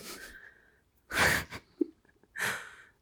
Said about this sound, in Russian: Ой, мне сосед очень громко чихает.